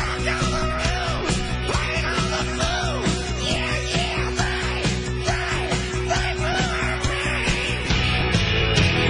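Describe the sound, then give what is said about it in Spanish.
A man yells loudly and repeatedly over a dense, continuous music bed, his voice rising and falling in long, strained cries. “Patrón, es tu turno. Grita como solo tú sabes hacerlo.”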